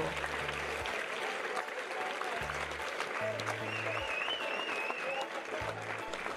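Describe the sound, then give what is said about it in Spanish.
Steady clapping from a small group at the end of a children's story read aloud fills the whole few seconds, a dense, even patter at moderate volume, with some faint low tones humming underneath. “Y al que le gustó, lo aplaudió.”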